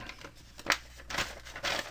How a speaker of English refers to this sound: When you hear the paper rattle, you know what that means.